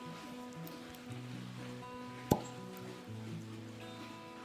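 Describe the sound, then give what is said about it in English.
A cork pops out of a George Dickel rye whiskey bottle with one sharp, crisp pop, heard over a steady low hum of background tones, with no talking. “Beautiful, beautiful cork pop.”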